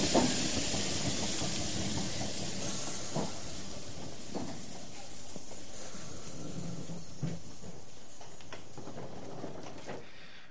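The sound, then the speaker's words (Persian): A steam train rolls into the station at Manasia, with a steady loud hiss of steam and scattered metallic clanks and thumps, no voices. “ترن به ماناسیا رسید”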